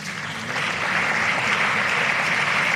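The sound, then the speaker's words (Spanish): Sustained applause, an ovation from a crowd following a presentation, a dense wash of many hands clapping that swells slightly and stays loud and steady throughout, with no voices standing out. “Ahí está, vaya presentación y con ovación incluida, ya está hecha, sobran las palabras”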